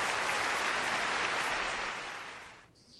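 Dense, steady applause from a crowd, a continuous wash of clapping that holds strong for about two seconds before thinning out and fading near the end.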